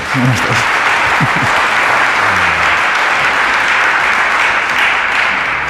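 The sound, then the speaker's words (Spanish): An audience in Zaragoza applauds steadily for several seconds, a dense, even wash of clapping with no break or swell, and a few faint voices murmur underneath near the start. “Pues yo he visto un aplauso idéntico.”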